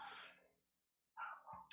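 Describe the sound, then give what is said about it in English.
A dog barks twice in short, sharp bursts separated by a brief pause, moderately loud, with no talking. “If you hear my dog barking.”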